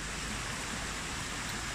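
flowing river water

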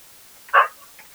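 dog barking

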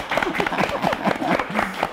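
applause

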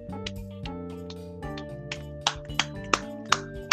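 hand clapping

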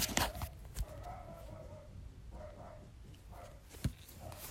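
dogs barking

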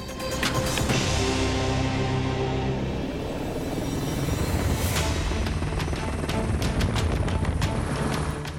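helicopter landing

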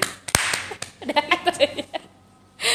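hand clapping

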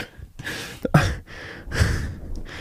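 fart noise

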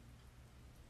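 rain falling outside

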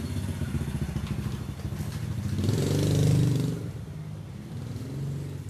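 motorcycle engine revving

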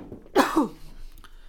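cough

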